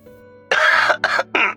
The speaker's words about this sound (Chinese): 宋奎连忙咳嗽两声